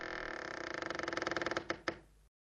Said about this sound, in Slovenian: Opogumil sem se in stopil do omare. Kdo, kdo je tam? sem rekel. Zaprl sem oči in odmaknil vrata.